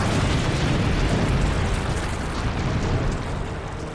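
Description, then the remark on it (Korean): A dam bursts and collapses in a loud, continuous roar, with a torrent of rushing water surging for several seconds and easing slightly toward the end. No voices. “이쪽 면에 금이 가기 시작했어요. 더 이상은 무리야. 무너진다.”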